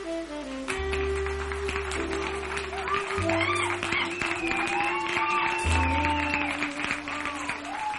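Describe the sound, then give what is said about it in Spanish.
Steady applause from a crowd for Javier Gallego, a dense crackle of clapping running the whole eight seconds beneath a loud musical passage with sustained low notes and a wavering melody. “Un aplauso para Javier Gallego.”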